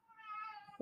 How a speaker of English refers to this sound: Ah, oh, that's our cat, Teddy.